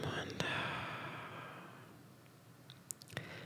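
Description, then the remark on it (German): A soft, slow breath out through the mouth during a guided breathing exercise, airy, fading over a couple of seconds, followed by a few faint clicks and quiet breathing. “Das letzte Mal wieder einatmen durch die Nase. Und ausatmen durch den”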